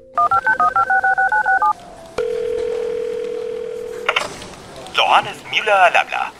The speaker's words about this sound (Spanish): coge el teléfono y marca el número de Johannes Müller en Berlín